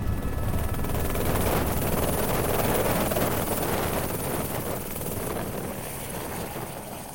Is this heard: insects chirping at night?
no